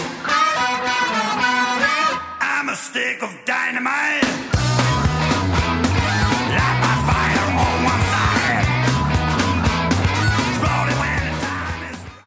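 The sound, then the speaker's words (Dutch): A rock band song plays loud, by a band 60 years old, with a sung lead vocal over driving drums, bass and guitars; a brief sparse intro gives way to a full, steady groove. “…, 60 jaar oud, 60 jaar jong. Ze klinken ongeveer zo.”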